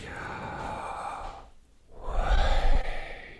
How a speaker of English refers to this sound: scholars don't know fully uh, how to pronounce it, but the, the, one of the main closest ways is Yahweh, right? This and but what the interesting thing is when you stop and think about breathing in and breathing out. It sounds like that word, like,